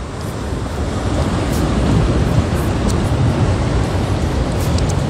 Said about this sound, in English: You see the wind that's blowing back here? It's breeze. It's, the tide is rising. This, the it's waves is. The waves is splashing on the back of my neck.